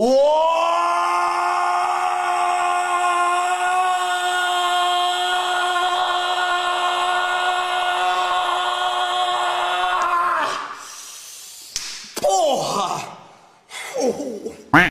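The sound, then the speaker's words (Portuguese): A man in a meme clip lets out one long, loud, sustained moaning yell for about ten seconds at a steady pitch, then breaks into breathless gasps and a few shorter strained cries. “Quando, mulher, quando vejo alguém falando de homem gemer, eu lembro daquele maluco lá que faz o ó, oh, porra! Tá mal gritão, mano.”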